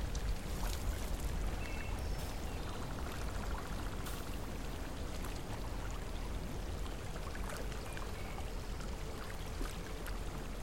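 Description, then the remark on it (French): Steady trickling and splashing of hot spring water, with warm steam rising and snow gently falling over the landscape: a continuous bubbling flow with small droplet clinks scattered throughout, even in loudness and unbroken for the whole stretch, with no voices. “Tout autour de vous est silencieux, à l'exception du tintement de l'eau de la source.”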